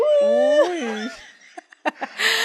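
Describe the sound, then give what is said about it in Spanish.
A person mimics the noises of wolves seen in a video, with a wavering, rising-and-falling voiced cry for about a second, followed by a few short breathy snorts and a soft giggle. “literalmente los lobos se quedan como que dándole a la, a la cristal y es súper creepy. Y haciendo los ruidos como los uy”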